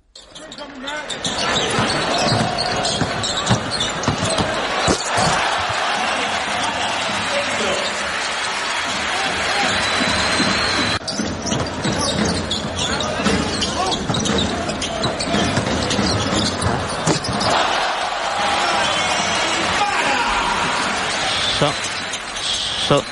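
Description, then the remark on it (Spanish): A Spanish basketball game in a loud arena: the ball thumps on the court beneath a constant crowd roar, with cheering surging twice as two baskets are scored on the debut of 17-year-old, 2.20 m player Adaimara on 16 October 2022, with voices mixed into the noise. “Son los sonidos de dos canastas y de un nombre, Adaimara.”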